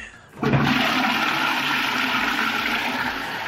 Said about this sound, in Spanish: No son las cataratas, es un baño. Por suerte hay un baño.